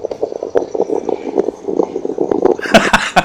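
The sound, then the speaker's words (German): A small stovetop espresso maker set on the hob gurgles, a steady run of bubbling pops that swells into a louder hissing sputter at the end. “was googelt denn da hinten bei dir? Ist das die Kaffeemaschine? eine kleine Kaffeemaschine.”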